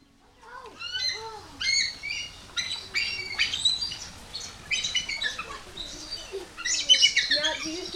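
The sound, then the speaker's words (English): Eagles in the Citizen Potawatomi Nation's Eagle Aviary call with shrill, high chirping squawks, repeated in quick overlapping bursts throughout, as if several birds are calling. “That's how the eagles say hello to you guys.”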